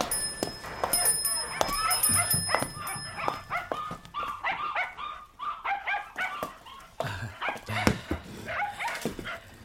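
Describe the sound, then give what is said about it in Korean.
An abandoned puppy barks in quick, high-pitched yips, repeated in irregular bursts across the whole stretch, with a thin ringing tone in the background during the first few seconds. “볼 때마다 골똘한 표정으로 바닥만 보시던데 웬일로 오늘은 강아지한테 눈길도 주시고?”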